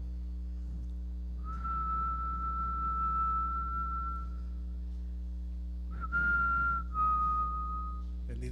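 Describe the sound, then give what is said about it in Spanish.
A person whistles in imitation of an Amazon bird, giving one long steady note, then a brief pause and two shorter notes that dip slightly, clear over a low hum. “Eso es un pájaro de los de Amazonas.”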